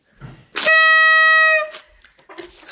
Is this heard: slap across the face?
no